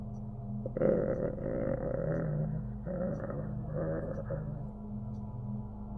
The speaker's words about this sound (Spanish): Los gruñidos que se acercan. Oyes el arrastrar de pasos. No sabes cuántos hay, pero hay más de uno. Quizá tres, cuatro, seis y cada vez se acercan más en tu dirección.